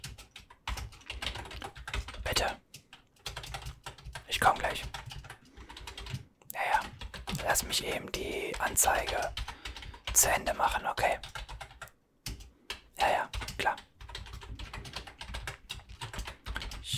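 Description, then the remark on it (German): Clatter of fingers typing on a computer keyboard as notes are taken down, coming in quick irregular bursts of keystrokes separated by brief pauses, fairly quiet but crisp throughout. “Alles klar. Notiere ich mir.”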